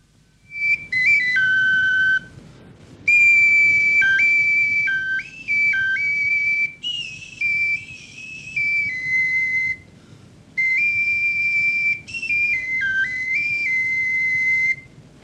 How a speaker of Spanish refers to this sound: y dos flautas, una muy pequeña de hueso, con tres agujeros superiores y uno inferior,